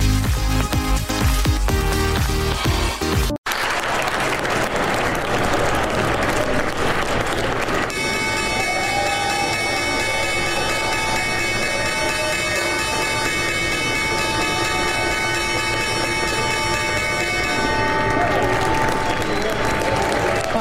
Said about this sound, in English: So welcome back to First Move. I'm Eleni Giokos in New York, and that was the opening bell on Wall Street.